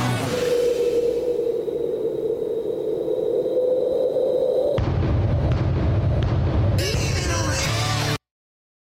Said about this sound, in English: There was the bass drum. yeah, and and beautifully recorded. I I might add that that reverb they have on it.